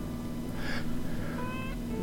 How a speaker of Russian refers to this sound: У меня кошки за окном дерутся.